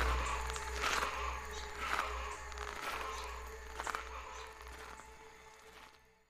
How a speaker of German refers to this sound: Die Stimmen verstummen. Ich höre Schritte.